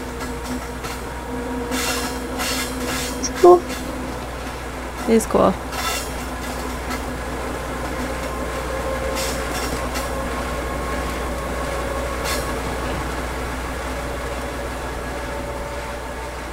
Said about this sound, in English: There's a train that just goes. They just go right past it. Because mm. there's a railroad track right next to it.